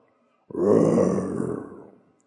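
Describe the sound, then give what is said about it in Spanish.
A voice imitates a lion's roar: one loud, deep, rough growl that bursts in, holds for about a second and a half, then fades away. No other sounds accompany it. “Y luego los leones rugen, pero están buscando presa, ¿entienden?”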